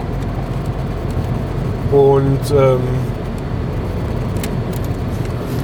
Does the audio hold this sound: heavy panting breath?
no